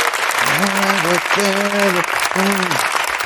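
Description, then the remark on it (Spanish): Steady, dense clapping from an audience fills the whole stretch at even loudness, while a voice speaks over it in short bursts. “bueno, un aplauso para ellos, que son, que son unos cracks.”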